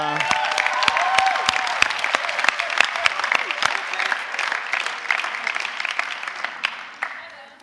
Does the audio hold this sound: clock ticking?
no